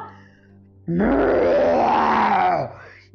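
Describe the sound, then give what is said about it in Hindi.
A voice imitates a lion and a tiger growling in a told story: one long, loud, rough snarl lasting nearly two seconds, rising then falling away, with quiet before and after. “शेर और बाघ को गुर्राते देख चंद्रू समझ गया कि उसका खेल समाप्त हो चुका है और वो भागने लगा”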